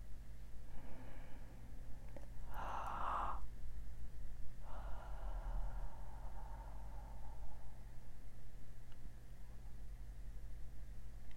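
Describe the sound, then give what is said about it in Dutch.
A person breathes out with an open 'haaa' sound: a breathy exhale stretched over a few seconds after a quicker sharp breath, all over a low steady hum with no talking. “En dan adem je uit met die ha-klank. Het is bijna alsof je gaat gapen.”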